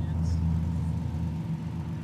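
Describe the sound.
A steady low engine hum and road rumble from inside a car moving through a small village, continuous and fairly loud, with faint voices murmuring underneath.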